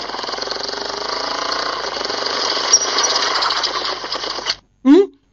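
A motorcycle engine runs loud with a rough, rapid chugging that stays steady for several seconds, then cuts off abruptly, followed by a brief vocal sound.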